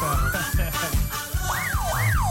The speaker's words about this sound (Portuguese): Pois é, agora tu não reclama da buzina aí do, da sirene.